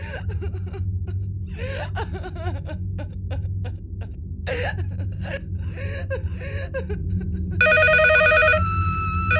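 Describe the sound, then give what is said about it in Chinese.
Soft sobbing and gasping breaths over a low steady hum, then a loud, rapidly trilling telephone bell suddenly bursts in at half past two at night and keeps ringing to the end. “突然，震耳欲聋的电话铃声猛地响起来了。”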